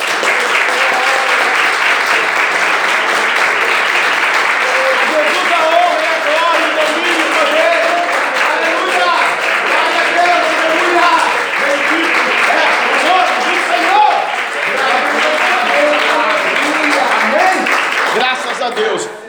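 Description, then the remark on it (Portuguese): A church audience applauds Jesus on a count of three, loudly and steadily for about twenty seconds, a dense wash of many hands clapping at once, with a few voices mixed into the din. “Então no 3, você pode aplaudir a Jesus.”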